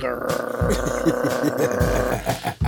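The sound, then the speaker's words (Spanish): A person imitates a female dog growling at someone at a house door: a low, rough, rumbling sound, held steadily for a few seconds with brief pulsing breaks. “Te explico, me está gruñendo, ¿no?”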